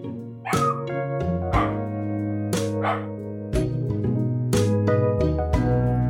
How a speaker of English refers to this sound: That's my dog barking in the background, and I dislike him.